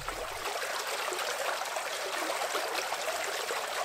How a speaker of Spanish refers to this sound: Eh, y cerraría con algún sonido de agua, como, como también podemos escuchar en la peli, que aparece muchísimo.